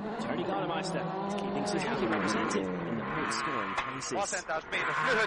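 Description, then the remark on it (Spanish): A rally car engine with a faulty exhaust, during a rally in Argentina, drones loudly and roughly, its pitch rising and falling with the revs and sputtering briefly near the end. “Suena horrible el coche y ahora vais a ver lo que pasa aquí en el interior.”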